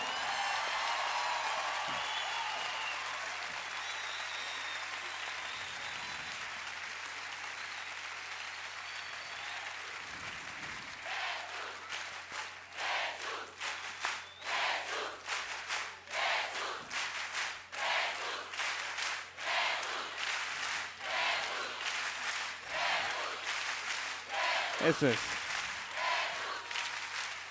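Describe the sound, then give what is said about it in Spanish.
A crowd applauds God at a singer's request, clapping steadily for nearly half a minute, the clapping swelling into a dense, rippling roar with scattered cheers and shouts rising above it toward the end. “Nosotros cantamos para glorificar y para hacer más famoso aquel que es el único que merece llamarse artista, para quien pido el mejor de los aplausos.”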